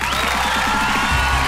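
A burst of applause with a dense, steady clatter of claps, joined by faint crowd noise and a low rumble toward the end.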